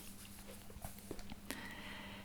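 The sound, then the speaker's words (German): Faint rustling and soft taps from a book being pulled forward, then a sharper click followed by a steady papery hiss over a low background hum. “Ich raschel jetzt ein bisschen, weil ich das Buch nach vorne hole, aber das gehört jetzt hier dazu.”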